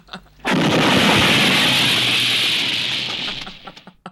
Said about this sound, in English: it's not even like a slow mo explosion. It's just a quick explosion, and then immediately cuts back to him running.